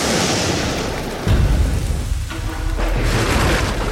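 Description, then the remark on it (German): A thunderstorm: steady rain hisses throughout while a deep rumble of thunder rolls in partway through and lingers, loud, with no voices. “Er wurde vom Regen geweckt, der auf sein Gesicht fiel. Ein Sturm war aufgezogen.”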